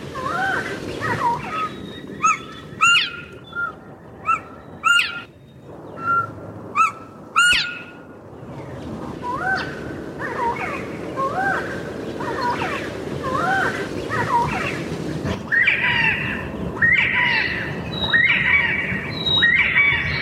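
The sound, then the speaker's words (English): A group of northern bobwhites gives overlapping covey calls: busy, repeated whistled chirps and squeaky notes, with a few sharper bursts early on, continuing steadily over a soft rushing background. “A group of northern bobwhites, which is called a covey, also gives the hoy call, along with several other calls.”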